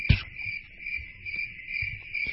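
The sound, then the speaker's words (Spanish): A cricket chirps in a steady, high-pitched trill that carries on without pause, with a soft thump at the start and faint low rumbling underneath. No one speaks. “Muy mal, y claro. El grillo.”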